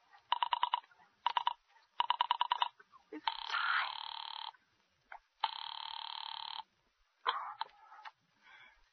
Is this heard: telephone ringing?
yes